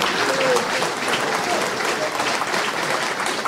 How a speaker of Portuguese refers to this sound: Nesse momento, alguns soldados e oficiais do 24º Batalhão estão recebendo a medalha das mãos do presidente da Câmara Municipal e demais autoridades aqui do município de Diadema. Uma salva de palmas de nossos homenageados.